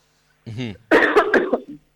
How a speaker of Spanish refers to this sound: perdón porque yo estoy con resabios de una tos y de un... Estamos todos iguales, tranquilos.